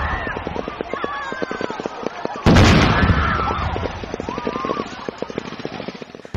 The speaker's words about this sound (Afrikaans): skouspel van ontploffings en geweervuur het skoolkinders en hulle ouers gaande gehad by 'n demonstrasie in Richards Bay aan die einde van oefening Shared Accord.